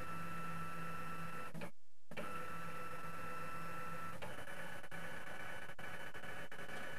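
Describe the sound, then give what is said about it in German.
A document scanner runs with a steady mechanical whir and stable tonal hum, briefly cutting out near the start, then continuing with faint clicks as the page feeds through while it scans a document in colour. No one speaks. “Und jetzt wird gleich der Scanner angeschmissen, Sie hören schon, und er fängt an zu scannen.”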